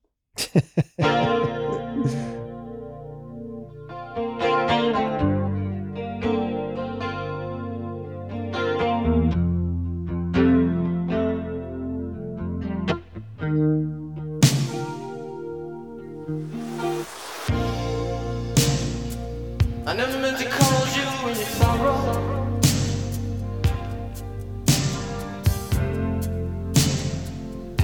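The long album version, about 8 minutes 41 seconds, of a slow rock song plays, opening with shimmering, chorus-laden electric guitar chords before drums and a fuller, distorted band sound kick in partway through, steady and moderately loud with no talking.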